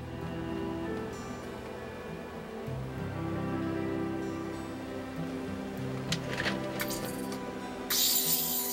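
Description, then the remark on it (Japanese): Short bursts of steam hiss out onto dyed fabric coated with a glutinous-rice paste, heating it during a bleaching step of the dyeing process, then a louder, sustained hiss of steam at the end, over a soft, steady musical background with no talking. “ここではそれを漂白する作業をしますこれは美しい白を残すための大事な工程ですこのもち米でできた海苔にはこのような物質が混ぜられています蒸気で熱します”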